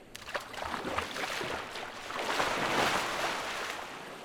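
Water sloshes and splashes as someone wades into Lake Titicaca over a rocky bottom, with a few sharp drips early on and a steady churning swell that grows louder midway. No voices.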